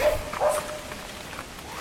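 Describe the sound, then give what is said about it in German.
A small dachshund barks aggressively on a downhill mountain hiking trail, two sharp barks close together at the start, then a fainter bark trailing off over steady outdoor background noise. “Uiuiui, der Hund ist wirklich böse.”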